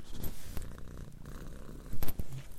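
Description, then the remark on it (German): A cat purrs steadily, a low continuous rumble with a slight rhythmic pulse, briefly louder near the end. No one speaks. “Die Hintergrundgeräusche werden heute auch wieder gesponsert von zwei Katzen.”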